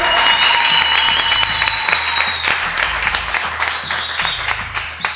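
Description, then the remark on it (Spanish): Loud, sustained audience applause fills the whole stretch, a dense wash of rapid clapping with a few high whistles or cheers ringing above it and no pause, applauding the Sonidos Independientes team at its second-anniversary event. “Y por último, y para que no se les quite la costumbre, un fortísimo aplauso para el equipo de Sonidos Independientes, por favor, que hacen todo esto posible.”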